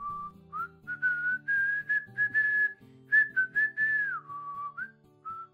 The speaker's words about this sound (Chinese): 而小天则是继续坐在凳子上，悠闲地吹着口哨。哼着歌。